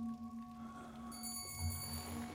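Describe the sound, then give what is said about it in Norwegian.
A bell rings with a steady, sustained tone that hums low and shimmers with bright overtones partway through, fairly quiet and lingering, with no voices. “Nå må det gjøres. Klokken kaller.”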